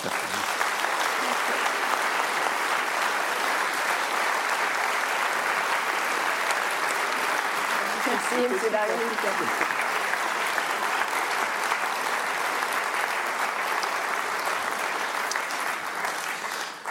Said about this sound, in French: Merci beaucoup. Je crois qu'on va pouvoir l'applaudir.